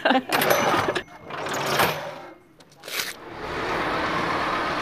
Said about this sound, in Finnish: Bussi turistaa Jyväskylän keskustassa.